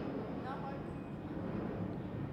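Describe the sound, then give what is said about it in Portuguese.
A loud, steady engine roar of an airplane passing overhead fills the whole stretch, a broad rushing drone with faint whining tones riding on top and no break in the noise. “Tá um avião aí, né?”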